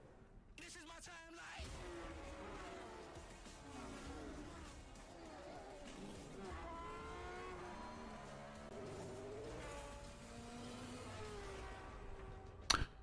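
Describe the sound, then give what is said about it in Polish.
Racing car engines in a racing video game trailer rev and whine continuously, pitches sweeping up and down as they accelerate and shift, loud, with a tire squeal-like burst at the very end. “No co, no ścigałem się autka, no to, to tutaj jest”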